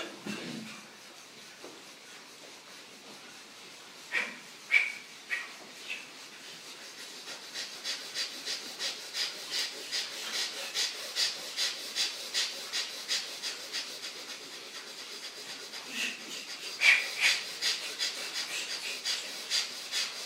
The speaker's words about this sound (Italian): E per qualche minuto frusta bene il diaframma nella respirazione purificativa.